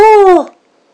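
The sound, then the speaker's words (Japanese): A person voices a large lion's roar: one loud, drawn-out vocal cry lasting about half a second, sliding down in pitch as it trails off into silence. “恐ろしいうなり声がしたかと思うと、今まで見かけたこともないような大きなライオンが行く手に立ちふさがっていた。”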